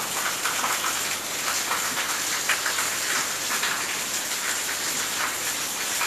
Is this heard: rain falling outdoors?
yes